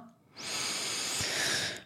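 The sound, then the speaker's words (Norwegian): A single deep inhale, drawn in steadily through the nose or mouth for over a second, airy, with no talking. “Så ta et godt pust inn nå”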